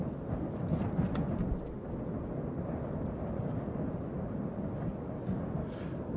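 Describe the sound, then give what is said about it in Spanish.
A deep, continuous rumble of rolling thunder fills the air, low and heavy, with a steady storm wash of rain-like noise underneath and no voices, during a storm with strong gale winds and lightning. “Del cielo cae el resplandor de los rayos, el rugido del trueno, una tormenta que parece anunciar el fin del mundo.”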